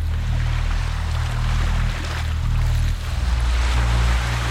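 Coastal ocean waves along a fishermen's trail in Portugal wash in a continuous, fairly loud roar, with a steady low rumbling drone underneath and no voices throughout.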